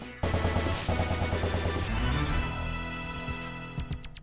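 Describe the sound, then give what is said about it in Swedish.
Loud video game gameplay audio from the first level of the game: rapid, continuous machine-gun-style firing bursts over a low droning tone, easing slightly toward the end, with a few sharp blips at the finish. No one speaks. “Så där lät det alltså. Första banan. Första banan i Super Pro Protector.”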